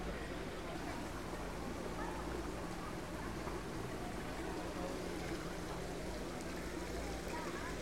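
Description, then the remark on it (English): Water streams and splashes continuously in a Japanese garden, a dense, steady rushing sound with no pauses, holding an even loudness from start to finish. “And this sound of streaming water gives us a feeling of freshness.”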